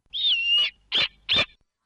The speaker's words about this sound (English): We have with us the snowy owl who is currently on a rooftop in Cypress, California. Welcome to KFI, sir.